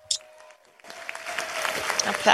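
Audience applause breaks out after a brief quiet start, a dense steady patter of many hands clapping that holds at moderate loudness and swells slightly toward the end.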